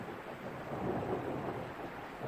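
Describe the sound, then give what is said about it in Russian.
A heavy downpour roars steadily, a dense wash of rain noise that swells slightly midway and never lets up, with no voices. “Ну и ливень.”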